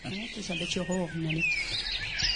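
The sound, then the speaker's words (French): Small birds of the Bergues area in Flanders chirp and twitter in spring in the background, thin high calls running through the whole moment while a person talks in the foreground for the first part. “Alors, c'est le printemps, et dans le fond sonore, on entend les oiseaux. Les petits oiseaux.”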